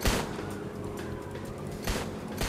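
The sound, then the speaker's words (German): Gunfire from several weapons, fired out of the window of a speeding car, crackles over a steady rumbling background, with sharp bursts near the start and again about two seconds in. “Ihr macht das Fenster runter und schießt aus allen Rohren, um das, das inzwischen einsetzende Gegenfeuer oder, oder die an, anfängenden Schüsse äh, zum, zum Verstummen zu bringen.”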